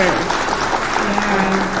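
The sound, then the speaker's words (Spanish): An audience applauding the people who take on community initiatives, a dense, steady wash of many hands clapping at a constant, fairly loud level for about two seconds, with voices faintly audible beneath it. “Realmente un aplauso así para toda la gente que se, que se avienta a tener este tipo de iniciativas que, sabes que, que van a ayudar.”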